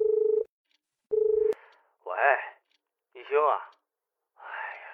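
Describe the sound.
A telephone call being placed: the line sounds two steady, buzzy electronic tones in a row, each about half a second long, followed by several short bursts of a voice talking.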